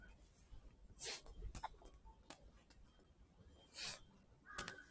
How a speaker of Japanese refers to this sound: カラス。カラス。